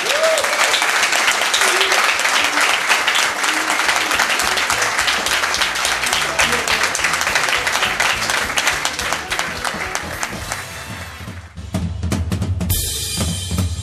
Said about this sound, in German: bei denen ich mich nochmal ganz herzlich bedanken möchte und euch dazu herausfordere, dass ihr so laut applaudiert wie noch nie in eurem Leben.